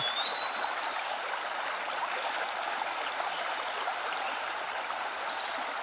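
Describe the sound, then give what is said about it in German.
A small, shallow stream, water no higher than the ankle, burbles steadily over stones, a continuous trickle and splash with no pauses, with a faint high bird chirp near the start. “Wenn du magst, kannst du auch durch das Wasser des kleinen Bachs warten, in dem Wissen, dass das Wasser niemals höher als bis zu deinem Knöchel reichen wird.”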